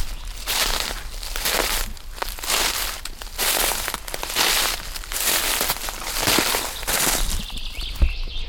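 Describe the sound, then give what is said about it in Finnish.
Steady footsteps crunch and rustle through last year's dry brown downy birch leaves on the ground as someone walks into a small wood at an even pace, each step a loud crackling burst, with a faint bird chirp near the end. “Nyt jos mä kävelen tuohon metsikköön, niin siitä alkaa sitten varmaan tilanne, että se siirtyy.”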